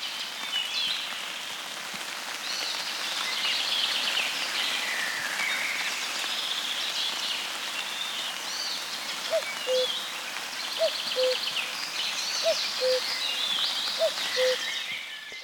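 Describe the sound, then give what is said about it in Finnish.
Warm, gentle summer rain in a Finnish soundscape patters steadily onto calm water, a soft even hiss throughout, with faint bird chirps above and a row of short, low repeated notes in the latter half. “Ja se ihana varhainen kesäaamu tai kesäinen sade – Sellainen lämmin hento kesäsade, jossa pisarat ropisevat tyyneen veden pintaan, luonto vehreimmillään.”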